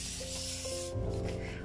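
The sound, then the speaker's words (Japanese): Continuous crinkling and rustling of paper flyers as sheets are handled and folded to make a trash box, a dry hissy texture that shifts and crackles with no one speaking. “あなんかもしかしたらカサカサ髪の音がうるさいって思うかもしれないけど今私これチラシでゴミ箱作ってるからその音だと思ううるさいかな後で聞いてみよううるさかったらごめんなさいすごいシャカシャカ言ってるかも”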